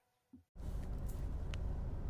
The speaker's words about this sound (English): I'm coming to you live from my car.